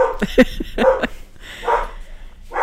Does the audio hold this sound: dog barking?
yes